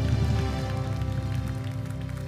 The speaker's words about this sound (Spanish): Un aplauso allá.